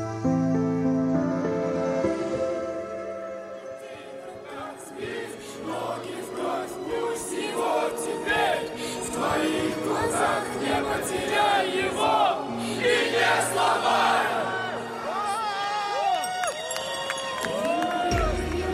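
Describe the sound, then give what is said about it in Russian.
A large crowd of fans of Moscow's Spartak football club in Russia sings a chant in loud unison, a dense wash of many voices that swells and stays strong throughout, with scattered shouts rising above the chorus. “Так песню … исполняют фанаты московского «Спартака», одной из самых популярных футбольных команд в России”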